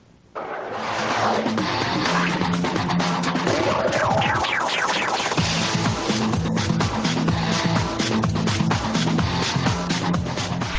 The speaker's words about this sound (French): j'ai envie de, eu envie de vous faire un petit jingle qui va vous, vous rappeler quelques souvenirs. Allez, écoutez.